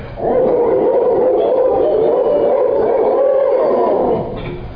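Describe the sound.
Several people imitate owl calls together as locator calls used in turkey hunting, a loud, sustained hooting howl that wavers slightly and carries for about four seconds before trailing off.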